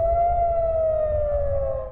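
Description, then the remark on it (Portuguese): A loud, sustained air raid siren wails steadily in Tel Aviv shortly after two in the afternoon local time. It holds a single drawn-out tone, slowly sagging in pitch before cutting off, with a low rumble of city background beneath it. “As sirenes voltaram a tocar em Tel Aviv pouco depois das duas da tarde, pelo horário local.”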